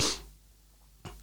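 A loud, sharp sneeze bursts out, followed by a quiet pause and a shorter, softer breathy burst near the end. No talking.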